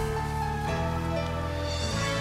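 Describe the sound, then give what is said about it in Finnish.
A short radio jingle plays on its own, a bright musical sting with sustained tones and a chord change partway through, steady and fairly loud for about two seconds, marking the end of the weather report and the start of the traffic bulletins. “merkiksi, että säätiedot päättyivät ja tämmöinen ääni kertoo liikennetiedotteista.”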